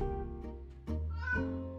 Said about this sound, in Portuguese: a gata miando para confirmar.